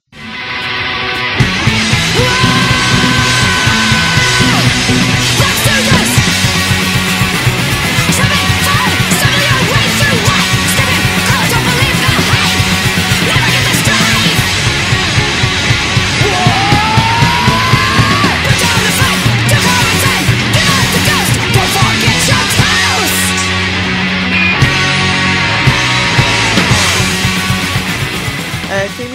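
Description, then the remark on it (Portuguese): A fast, loud fastcore punk song from the band's second release, a split, with dense distorted guitars and pounding drums, a screamed vocal yelling over the relentless wall of noise from start to finish. “Que é, que é o segundo registro da banda de fastcore, né?”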